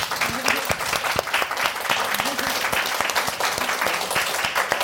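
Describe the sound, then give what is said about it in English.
Sustained applause from a sizable audience, dense overlapping clapping at a steady loudness for several seconds, with a few faint voices mixed into the crowd noise. “give them a round of applause, guys.”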